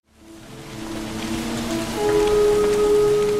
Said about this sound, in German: Der Regen. Gleichmäßig und andauernd prasselt er in diesem Film vom grauen Himmel.